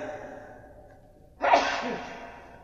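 One sharp, breathy sneeze bursts out after a stretch of quiet background noise, fairly loud, then trails off quickly. Nobody speaks.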